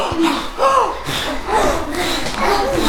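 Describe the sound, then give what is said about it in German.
Several people walking around a room exhale loudly and breathily together, imitating a cow's heavy breathing, with overlapping snorts and a few voiced, moo-like sighs. “Wie ein Kuh.”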